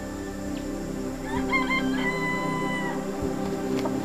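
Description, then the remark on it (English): A jungle fowl crows once, a loud rising-and-falling cock-a-doodle call with several harmonic bursts lasting about a second and a half, over a steady background hum with no talking. “Those birds over there, they're the jungle fowl. Uh, they're like chickens, but they are technically not chickens, right?”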